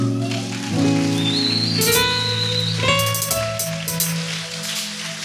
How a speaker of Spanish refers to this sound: me ayuda a darle un aplauso